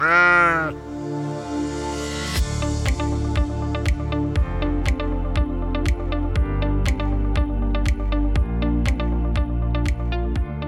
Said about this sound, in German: Jede Rubrik wird akustisch eröffnet von meinem kleinen Freund, dem Schaf. Na komm, sag mal was.